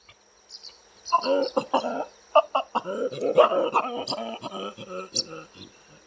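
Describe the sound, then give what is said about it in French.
A male chacma baboon gives a rapid run of throaty grunts and vocal calls in uneven bursts over several seconds before or during mating, with a steady insect-like hum in the background. “Avant et durant le rapport, les mâles font claquer leurs lèvres, grognent et produisent des vocalisations qui ressemblent à ça.”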